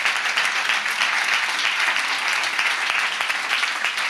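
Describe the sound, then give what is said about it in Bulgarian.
Sustained audience applause, a dense, steady wash of many hands clapping at once, loud and even throughout with no voices standing out. “О, ако ръкопляскаш, ръкопляскаш, като че ли си навярваш.”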